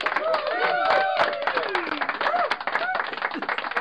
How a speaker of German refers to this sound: Applaus.